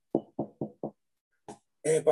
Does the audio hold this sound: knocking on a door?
yes